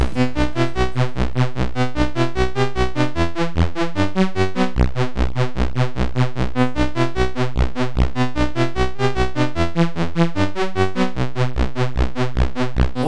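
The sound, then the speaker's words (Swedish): A bouncy tune from the retro computer game Lazy Jones, subtune number 21, with bright, buzzy chip-style synth tones over a steady, driving pulse, playing loud and continuously with no voices. “ja, men nu kommer det, det som Lazy Jones-musiken är mest känd för.”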